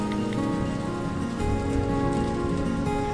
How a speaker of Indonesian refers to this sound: Hujan deras.